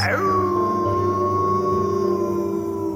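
A single long wolf howl at nightfall from the forest of Saint-Quirin rises briefly at the start, then holds a steady, sustained tone for several seconds. It sounds fairly loud and clear, with no voices.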